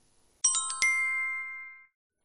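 A short electronic mobile phone ringtone for an incoming call from a teacher, on a train in Japan, chimes a few bright, bell-like tones in quick succession, then sustains and fades out over about a second, clear with no voices.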